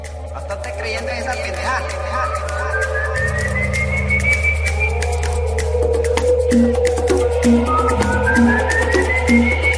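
A corrido-style song plays steadily in the background, with an eerie rising whistle-like melody over a low droning bass and a pulsing beat that enters partway through.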